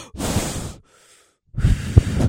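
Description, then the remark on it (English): Two loud, heavy breaths, a long rushing exhale, a brief pause, then a harsh gasping breath, as if someone is imitating anxious, panicked breathing. “like breathing because I'm like, I'm fucked up. I don't want to panic.”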